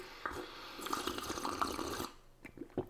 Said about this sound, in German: aber ich muss jetzt auch nochmal ein Schlückchen koffeinhaltige Apfelschorle nehmen. Zum Wohl.